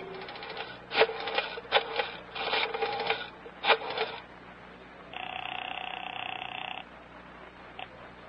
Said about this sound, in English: Special Agent Jim Taylor is making a phone call.